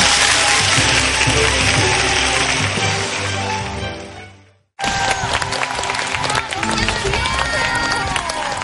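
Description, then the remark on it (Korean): An audience bursts into sustained, dense applause after a lecture, fading out, dropping briefly to silence, then starting again with a second steady wave of clapping. “오늘도 역시 명 강연을 들려주신 신병지 교수님께 다시 한번 큰 네, 박수.”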